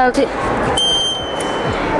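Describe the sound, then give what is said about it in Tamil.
A steady, high-pitched electronic fire alarm tone from a student's electronics project, built to start ringing when it heats up from a fire, starts partway through and holds without a break, sounding over a noisy background with a voice talking at the start. “first alarm வந்து fire alarm இது வந்து நெருப்பு பிடிச்சா எங்கேயாச்சும் நெருப்பு பிடிச்சிருச்சுன்னா இந்த சி சிலோண்டையோடு வந்து எங்கே எங்கேயாச்சும் நெருப்பு பிடிச்சிருச்சுன்னா இது சூடாகி உடனே அலாரம் அடிக்க ஆரம்பிச்சிடும்”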